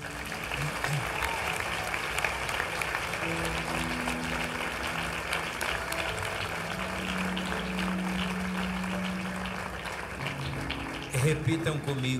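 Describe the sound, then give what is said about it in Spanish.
Sustained audience applause for Jesus, called for by a preacher, a dense steady wash of many hands clapping, with a faint voice and some sustained tones beneath it and a brief louder burst near the end. “Aplaudan a Jesús.”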